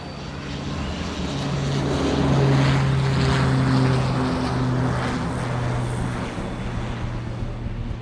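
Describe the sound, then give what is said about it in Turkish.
An airplane engine drones steadily at Istanbul Airport in Turkey, a loud humming roar with a tonal whine that swells toward the middle and then eases slightly, with no voices present. “havalimanında yürürken izlendiğinin farkında değildi ve İran'ın başkenti Tahran'a gidecek uçağın bileti elindeydi.”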